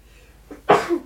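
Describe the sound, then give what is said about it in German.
A single sneeze: a short sharp intake of breath, then an explosive burst trailing off into a brief voiced tail. No talking. “Gesundheit.”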